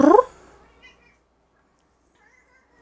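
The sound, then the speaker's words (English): A single short meow from a cat named Wednesday sounds right at the start, fairly loud, then trails into near silence with only faint, indistinct background sounds afterward. “Uh, just meowed.”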